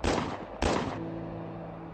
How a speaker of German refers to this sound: Booth bog um die Ecke er ging auf den Präsidenten Abraham Lincoln zu und feuerte drei Schüsse auf seinen Kopf ab.